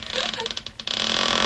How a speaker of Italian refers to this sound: È un motorino.